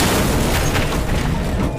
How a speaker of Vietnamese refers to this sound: Một tiếng nổ lớn phát ra khi mà sinh vừa nói dứt lời Đó là quỷ lực của con quỷ kia vừa tung ra Phá tan một cây gần đó